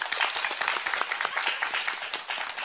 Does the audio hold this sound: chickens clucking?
no